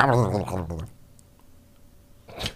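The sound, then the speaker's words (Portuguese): A short voiced sound opens, then after a quiet pause a single sharp tongue click made with the mouth pops out, fairly loud. “Como é que é o barulho que tu faz com a boca?”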